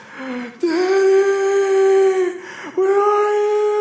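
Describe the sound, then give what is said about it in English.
A voice imitates a toddler girl crying when her door is closed at bedtime: two long, steady wails, the first briefly held before a short break, then a second wail starting again at the same loud, whiny pitch. “just like crying.”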